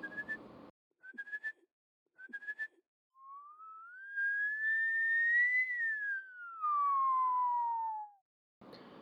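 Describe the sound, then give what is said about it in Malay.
A father whistles a melodic tune while walking with his family along a second-floor apartment corridor toward their unit, past neighbours' doors, starting with a few short rising notes and then a long sliding phrase that rises and falls, with a brief noisy sound at the start and end. “bersiul lagu …”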